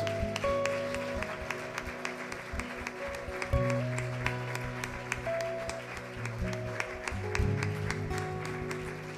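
A church audience applauds Jesus after a prayer, steady dense clapping spread across the whole clip over sustained organ-like tones and a low musical drone.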